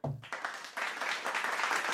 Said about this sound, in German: Dafür habe ich einen Applaus verdient, oder?